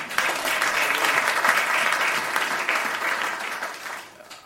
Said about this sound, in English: Uh, hallelujah. Oh, that's Zimbabwe. You can clap hands for them.